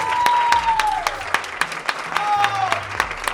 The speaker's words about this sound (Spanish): y ahora vamos a mostrar un poquito más de entusiasmo, este aplauso de nuevo para todos ustedes, muchísimas Muchísimas gracias.